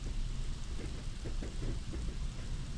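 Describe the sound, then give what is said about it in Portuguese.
Heavy rain pours down steadily outside a house, beating on the window, a dense, continuous hiss with a deep low rumble underneath. No voices, just the unbroken wash of a downpour at moderate volume. “Uma chuva forte cai do lado de fora.”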